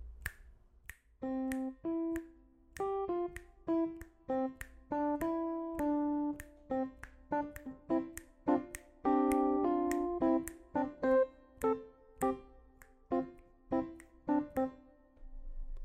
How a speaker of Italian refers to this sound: Vi faccio un esempio. Tengo il tempo con le dita e intanto vi suono una melodia a caso.